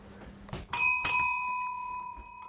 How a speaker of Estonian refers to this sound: ja nüüd helistame korra kella ja.